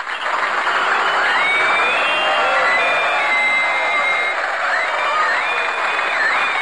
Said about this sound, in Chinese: Ladies and 乡亲们，让我们用热烈的掌声欢迎豆瓣儿闪亮登场。